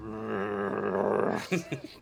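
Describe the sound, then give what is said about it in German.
A very old bear's deep, drawn-out growl rumbles steadily for over a second, then breaks into a couple of short, gruff vocal bursts at the end. “Brummen. Ja. Und wir sehen einen sehr, sehr, sehr alten Bären.”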